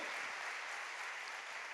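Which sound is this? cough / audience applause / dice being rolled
audience applause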